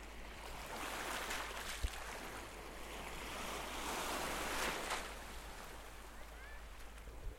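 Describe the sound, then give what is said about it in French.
Continuous surf churns and surges around an emerged rock, a broad washing roar that swells and recedes, with faint rattling of pebbles rolling in the backwash and some wind buffeting the microphone. “Parfois, le roulement des galets. le bruit d'eau lorsque les flots en serrent un rocher émergé.”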